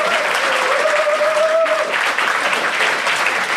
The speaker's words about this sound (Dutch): Dank jullie wel voor jullie spontane applaus ook